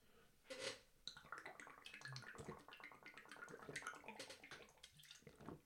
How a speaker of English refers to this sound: That's a horrible noise, isn't it? I've got this big, uh, big water bottle, um, Quechua, Quechua. There, uh, it's from Decathlon, you know, the big French sporting goods mega store.